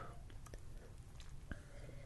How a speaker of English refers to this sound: taking a sip.